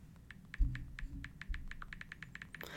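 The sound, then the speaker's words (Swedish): A rapid run of light, crisp phone keyboard clicks, roughly a dozen and a half in quick succession, fairly quiet over a low background rumble, with no one talking. “Och så hör man bara i bakgrunden det här ljudet när någon skriver.”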